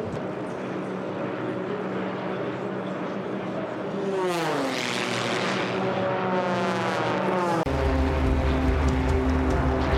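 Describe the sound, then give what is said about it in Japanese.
Race plane number 31, flown by Muroya, is cleared onto the track with smoke on at the season-finale air race in Indianapolis; its engine roars steadily, then sweeps through a pitch-shifting flyby whine before settling into a loud, droning buzz with strong low rumble; no one speaks. “Number 31 Baroya, you're cleared into the track. Smoke on.”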